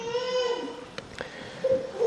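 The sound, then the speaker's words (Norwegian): A child in the audience wails in drawn-out, tremulous cries that rise and fall, with a short break in the middle before the crying resumes. “Kanskje det er derfor barna gråter.”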